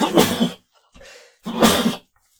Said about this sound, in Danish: jeg skal nys. Nå, fyr af.